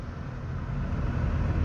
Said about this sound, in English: We got a tractor on the winding road and we got a wave.